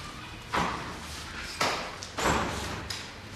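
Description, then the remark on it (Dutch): A door is pushed partway open with a few dull thumps and a brief scraping slide, with no talking. “Even de deur half.”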